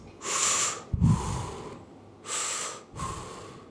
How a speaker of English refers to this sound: Also, when breathing, remember to take deepest breaths possible and try not to pause between the inhalation and the exhalation. So it should sound something like this.